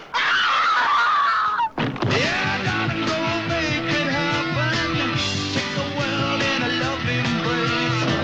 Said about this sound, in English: If you don't get out of here right now, I'm gonna scream. You won't scream. I'll scream. You won't scream.